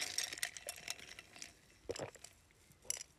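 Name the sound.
sipping coffee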